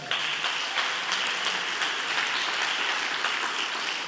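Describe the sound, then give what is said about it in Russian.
A church audience applauds steadily and loudly for about four seconds, giving glory to Jesus, the dense clapping continuing without pause and with no voices rising above it. “Давайте сильную славу Иисусу подарим.”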